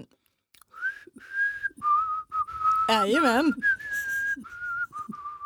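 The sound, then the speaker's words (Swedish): A person whistles the Swedish national anthem while eating an almond biscuit, a slow, steady melody in sustained clear notes, with a brief burst of wavering warbly tones midway and a short spoken word mixed in. “Jag ska kan du vissla med... svenska nationalsången mm. här ihop med att jag äter en mandelkubb.”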